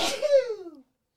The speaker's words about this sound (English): Oi! Gesundheit. Oh, cosmic sneeze. Anyways, you only sneeze once. I sneeze in pairs.